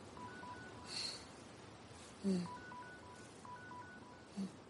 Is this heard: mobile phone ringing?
yes